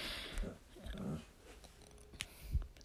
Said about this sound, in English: that a dog? Can I, can I pet it?